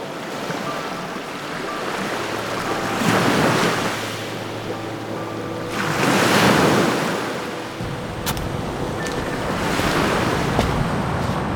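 Ocean waves break on a white sandy beach in front of Manta Resort on the island of Pemba off Tanzania, swelling into three loud surges of rushing foam a few seconds apart over a constant wash of surf and light wind.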